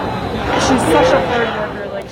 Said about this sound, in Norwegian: dette er lyden fra utenfor Høyesterett i natt. Mange har møtt opp der. Der roper de bl.a.: Respekter ønsket hennes.